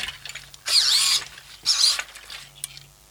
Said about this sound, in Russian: Я могу вращать телом благодаря сервоприводам.